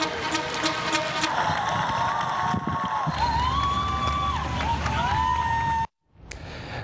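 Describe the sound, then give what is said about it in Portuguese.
A dense wash of clapping and cheering from many people at their windows, applauding nurses during the pandemic, threaded with wavering whistles, holds steady and loud before cutting out briefly near the end. “Mas desta vez, são eles que merecem janelas iluminadas e muitos aplausos.”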